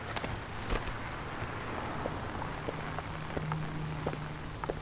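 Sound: rain falling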